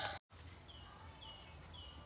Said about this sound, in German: Hier sind auch ganz viele Vögel.